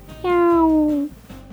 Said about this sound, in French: Le chat miaule.